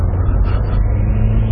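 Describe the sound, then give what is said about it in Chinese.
An SUV's 2.7-litre engine drones steadily under heavy load while climbing uphill on a gravelly mountain road, a deep, constant low rumble with a laboring, strained tone and little change in pitch, loud throughout with no talking. “啊，当爬坡的时候，你能觉得这2.7升发动机底气是不足，越到上边，你看干踩不走。”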